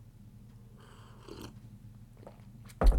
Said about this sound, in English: Let me get a sip of coffee just a second.